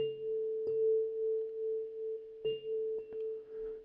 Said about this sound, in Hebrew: בעיקרון זה סולם לה מינור, הסנסולה הספציפית הזאתי, אה, אבל מה שמוזר במיוחד זה שיש לו, אין פה הרבה מאוד תווים, יש פה 1, 2, 3, 4, 5, 6, 7, 8, 9, אבל יש פה את אותו צליל, את הלה, יש פה פעמיים.